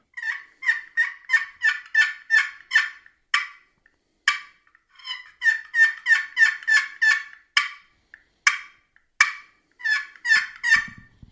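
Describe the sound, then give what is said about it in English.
A wooden scratch box turkey call, a small box of wood struck across a peg held in the hand, scratched in fast rhythmic runs of raspy yelps and rollover yelps, broken by sharp, abrupt cutting notes, loud with a hollow woody tone, no voices present. “That was yelping and cutting that I was doing there.”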